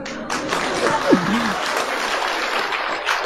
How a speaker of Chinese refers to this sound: 大家配点掌声啊！